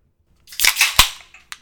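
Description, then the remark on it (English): Beer cans cracked open in quick succession: a few sharp, bright pops with a brief fizzing hiss, then a couple of fainter clicks. No one speaks. “Let's crack 'em, dog.”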